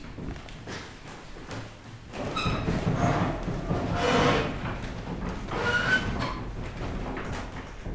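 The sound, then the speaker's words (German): The large hatch of an observatory dome slides open with a long, steady rumbling grind, starting with a brief squeal and continuing loud for several seconds, with no voices. “Also wie zu hören ist, geht die große Luke der Kuppel auf”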